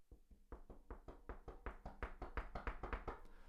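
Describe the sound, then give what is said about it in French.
Loud, rapid knocking on an office desk, imitating someone banging hard on an office door: a quick string of about twenty hard raps that grows stronger and more insistent toward the end, with no voices. “La personne arrive à votre porte et tape très fort.”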